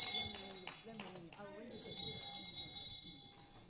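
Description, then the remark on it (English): A bell rings with a bright, shimmering high tone that swells midway and keeps sustaining, while people talk underneath it. “I'll ring the bell for myself.”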